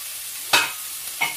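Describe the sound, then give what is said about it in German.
Meatballs frying in a pan: a steady, hissing sizzle runs throughout, broken by two brief louder scrapes or stirs, one early and one near the end. No one speaks. “Jetzt braten wir die erstmal und ich mache hier in den großen Topf schon mal Wasser, damit wir nachher die Nudeln kochen können.”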